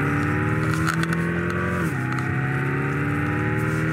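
A car engine sound played through a speaker makes a studio table vibrate: a steady engine drone with strong low harmonics hums continuously, dipping briefly in pitch midway like a gear shift, with a buzzing, rattling resonance and no voices.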